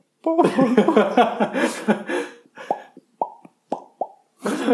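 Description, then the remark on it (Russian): A voice mimics the Skype call tone with a string of short, bubbly vocal pops, spaced out, after a stretch of laughter and chuckling at the start. “Я бы пришел в костюме скайпа. И что бы ты... Ты бы всех загружал просто очень сильно? Я бы подходил и сказать па па па”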